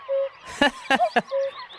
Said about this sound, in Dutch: En nou, je hoorde hier de koekoek.